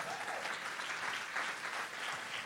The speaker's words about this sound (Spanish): Si usted lo cree, den un aplauso fuerte a Jesús.